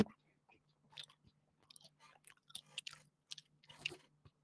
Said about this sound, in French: Qu'est-ce que tu mâches? Je mâche.